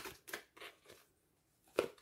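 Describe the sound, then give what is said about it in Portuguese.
A tarot card is handled and laid face down on a table during a card reading: a few soft, papery brushes and taps, then one crisper slap near the end, fairly quiet, with no talking. “Vou colocar para baixo que é para vocês não sentirem já”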